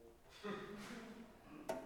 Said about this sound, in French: Je pense que le vent a fermé la porte.